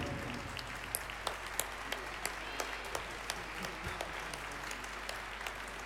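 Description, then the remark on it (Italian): An audience applauding the philharmonic musicians steadily, a dense wash of many hands clapping with sharper individual claps popping out now and then, sustained at an even level throughout. “Un applauso particolare ai filarmonici.”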